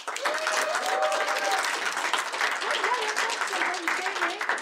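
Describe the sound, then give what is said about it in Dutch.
Sustained audience applause for cabaret performer and actress Martine Sandyvoort on a Dutch show, a dense steady wash of many hands clapping at an even, fairly loud level throughout, with faint voices and a few tonal sounds rising from the crowd. “Mag ik een applaus voor nou, jullie kennen haar als waanzinnige cabaretière, actrice, als dokter Cory, als Martine Sandyvoort.”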